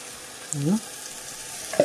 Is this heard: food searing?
yes